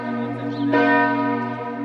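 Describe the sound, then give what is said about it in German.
The large, recently restored church bell of St. Nicholas Church in Meran, weighing over 3000 kilograms, rings out with a deep, sustained tone and shimmering overtones, struck again partway through so the sound swells, loud and resonant with no voices. “Die Glocke, die gerade läutet, die wurde neu restauriert, also die hatte einen Sprung.”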